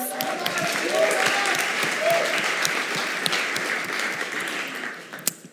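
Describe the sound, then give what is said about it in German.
A crowd applauds steadily, dense clapping for several seconds before tapering off near the end, with a faint murmur of voices underneath. “Vielen Dank für die musikalische Untermalung. Applaus.”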